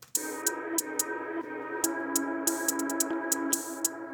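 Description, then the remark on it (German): A drill-style beat sketch: a sustained, droning melodic pad with sharp percussive high-end hits landing in an uneven, syncopated hi-hat pattern. Purely instrumental, with no voices. “Prägnant mit den, ähm, mit den Hi-Hat-Patterns, die so typisch für Drill sind.”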